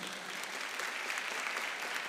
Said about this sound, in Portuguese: Glória a Deus. Você pode aplaudir a palavra de Deus.